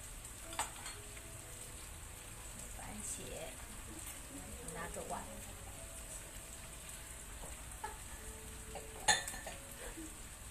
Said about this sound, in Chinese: 好，那它慢慢的煎